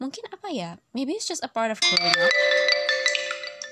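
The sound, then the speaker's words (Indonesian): A mobile phone notification chime rings out partway through, bright sustained tones layered over one another and lingering to the end while a person keeps talking over it. “maaf ya hp gue nih agak berisik ini.”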